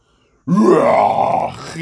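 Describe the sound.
A voice imitates a screaming crab with a single loud, strained, groaning screech that bends upward and holds for about a second before trailing off, following a brief silence.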